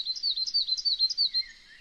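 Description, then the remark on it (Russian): A coal tit sings a quick, repeated two-note phrase about six times in a steady, bright rhythm. The song is clear, with no voices. “Например, московка, такая маленькая синичка, она говорит «винтик, винтик, винтик, винтик, винтик, винтик», когда поет.”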